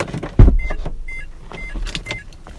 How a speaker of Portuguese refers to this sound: Ligou a ventoinha do meu carro, estranho. O seu carro não está quente.